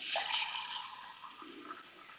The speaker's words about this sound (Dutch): Ik pak eventjes lekker een glaasje water.